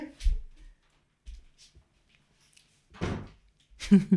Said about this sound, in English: Attends, let me close, close? the door okay